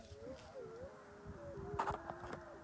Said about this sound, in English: hear that? What the hell? That is the wolf pack that surrounded us while we were looking at the stars.